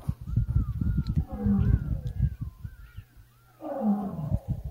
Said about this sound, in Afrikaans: En ek sit en kyk hier na 'n video ook die prag van ons natuur skoon en dit is waar die vyf leeu's wat ons gister oorgesels het, hulle self nou weer bevind.